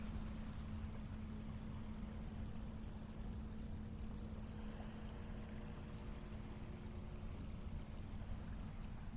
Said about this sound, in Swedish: Nu står jag precis vid strandkanten. Du kan få lyssna lite på vågorna här.